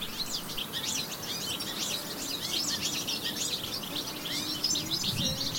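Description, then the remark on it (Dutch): Several birds chirp and twitter continuously in the garden of a ground-floor home on a sunny King's Day, a busy overlapping chorus of quick, high tweets over a soft ambient background hum, with no one speaking. “Ik zat buiten in de tuin van mijn benedenwoning een oranje tompoes te eten en te luisteren naar de vogels.”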